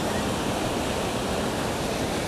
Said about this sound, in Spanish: Estás recorriendo un riachuelo, un arroyo que discurre desde lo alto de una montaña.